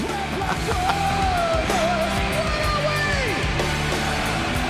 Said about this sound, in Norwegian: Å, fy fader! Tusenvis av mennesker som synger med her.